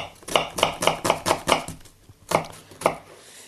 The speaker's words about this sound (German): Dann nehme ich eine geschälte Zwiebel und schneide die in feine Würfel.